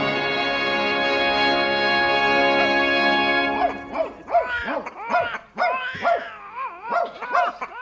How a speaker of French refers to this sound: Là, là, mon bel son. Veux-tu te calmer? Mais c'est qu'il me dévorerait si je le laissais faire. Il n'a jamais assez de lait, ce petit braillard là Allons, allons, allons. Tâche de t'endormir.